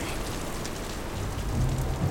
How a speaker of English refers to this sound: the soft, pitter patter of raindrops began to shower over them. It grew heavier and thick, wiping the rainwater from his brow.